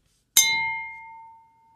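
A single gong is struck once to announce a new topic, giving a bright metallic hit that rings with a clear sustained tone and fades out over about a second, heard alone with no talking.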